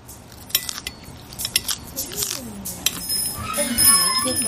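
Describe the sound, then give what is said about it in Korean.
Cutlery clinks and scrapes lightly against a salad plate in a quick, irregular series of sharp taps as someone at a salad bar table eats lettuce and shrimp dipped in pineapple sauce, while muffled voices and soft background murmur rise toward the end. “계산을 하고 나서 샐러드 접시와 토마토 주스를 들고 빈 테이블에 앉는다. 양상추에 새우를 포개 파인애플 소스에 찍어 한 입에 넣는다.”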